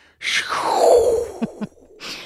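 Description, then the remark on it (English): A voice imitates the wispy whoosh of gas and dust in space, a breathy airy sweep that slides downward in pitch for about a second, followed by two quick lip pops and another short breathy rush. “But on the other hand, I also somehow imagine all the gas and dust and stuff making kind of a wispy, whooshy kind of thing, kind of like a.”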